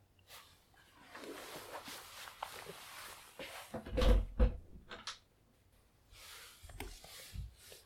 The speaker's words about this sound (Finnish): Ehkä se johtuu näistä syysmyrskystä ja nyt mä ehkä avaat oven ja päästän sen tänne nauhoitusstudioon eli vaatekaappiin.